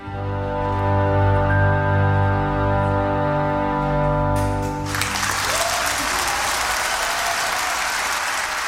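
A sustained orchestral chord rings out and fades as loud audience applause breaks out, a dense steady clatter of many hands clapping that continues to the end.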